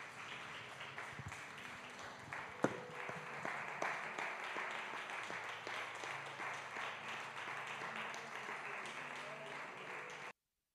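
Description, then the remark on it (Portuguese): An audience applauds Jesus during a prayer service, steadily for about ten seconds, a dense crowd of hand claps at a fairly even level with some faint voices mixed in, then it cuts off abruptly. “Aplauda Jesus.”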